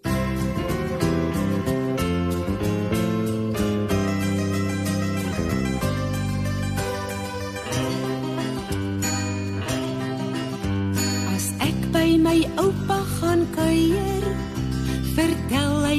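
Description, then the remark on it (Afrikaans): A full, steady piece of music plays throughout, with sustained harmonic chords and a regular rhythmic pulse of bright plucked or struck notes, at an even, moderate loudness. “Maar kom ons luister eers na musiek.”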